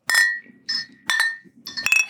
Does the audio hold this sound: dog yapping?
no